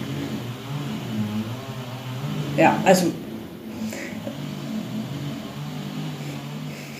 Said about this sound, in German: Ja, das hört man da eigentlich, das ist da draußen so ein bisschen eine Baustelle. wahrscheinlich, ich weiß. Nein, ich habe die schneiden irgendwelche Bäume oder sowas.